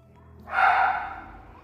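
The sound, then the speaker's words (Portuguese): A single short, breathy dog sound, like a snort or muffled woof, moderately loud, rising quickly and fading over about a second with no talking. “Vou, vou dar um chutão na barriga do meu, do meu cachorro.”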